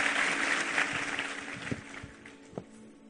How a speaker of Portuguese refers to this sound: Vamos aplaudir a Ele, Deus te abençoe.